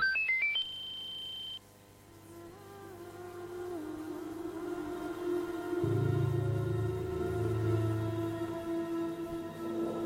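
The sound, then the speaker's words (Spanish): A phone ringtone opens with a quick rising run of electronic notes and a held bright tone, then gives way to lower droning, gliding tones that swell and linger for several seconds. “Eh, eh, chacho le pifia con el teléfono.”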